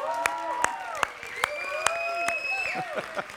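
A crowd applauds and cheers for the student pastor, with sharp claps landing in a steady rhythm under high, sliding whoops and whistles, lively and sustained throughout.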